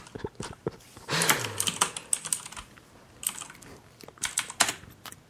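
Rapid clicking of computer keyboard keys in irregular bursts, moderately loud, with brief pauses between flurries of keystrokes and no one speaking.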